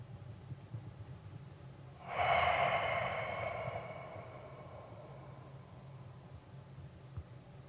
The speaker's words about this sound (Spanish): Empieza a respirar una respiración lenta y profunda.